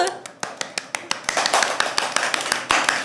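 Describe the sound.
Hand clapping in a quick, steady rhythm, sharp claps repeating roughly every fifth of a second, with a busy layer of voices or chatter underneath that swells partway through.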